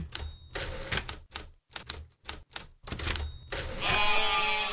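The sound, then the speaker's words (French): A short comic jingle built from typewriter clacks and carriage-return dings, broken by goat-like bleats, ending in a brief swelling sheep cry. No speech, fairly loud. “C'est le jingle Mouton écrivain.”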